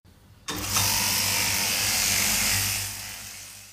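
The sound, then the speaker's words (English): A key-cutting machine starts abruptly and grinds steadily for a few seconds as keys are cut, a harsh, bright metallic whir, fading slightly at the end. “Sorry, I was just cutting some keys.”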